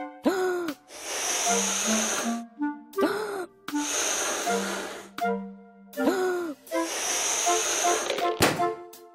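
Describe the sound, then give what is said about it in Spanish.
A colored balloon is blown up in three long, hissing puffs, each starting with a brief strained hum, and then bursts with a single sharp, loud pop at the end as it touches a hedgehog's sharp spines. “Quiero inflarlos Sopló, sopló y sopló, pero...”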